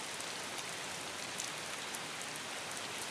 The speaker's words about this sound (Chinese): 听得见雨水打在深色水泥石板上的声音，清脆，又让人觉得心神不定。